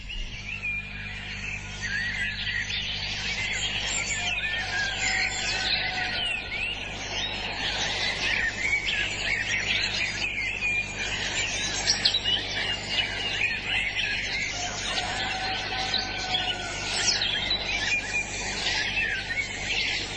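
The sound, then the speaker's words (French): A dense, continuous dawn chorus of warblers and other songbirds, many overlapping trills and chirps at a steady level for the whole stretch, with a faint low hum beneath and no voices. “qui a enregistré depuis des années hein, donc euh, les chants d'oiseaux, hein, les fauvettes, ah, ah, mais quelles étaient belles ces aubes bruyantes du chant des oiseaux”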